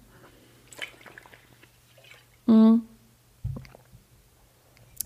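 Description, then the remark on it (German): Quiet slurping and wet swallowing noises from someone taking a sip of water, interrupted by a short hummed voice sound, then a soft low thump. “Ähm, genau, so, jetzt kommt der erste Schluck Wasser, Sekunde.”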